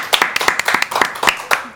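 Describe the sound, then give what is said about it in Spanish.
A small group in a studio claps for the photographer, quick irregular hand claps overlapping into brief applause that stays steady throughout the short burst. “La tiene que aplaudir también porque no saben la foto que saca.”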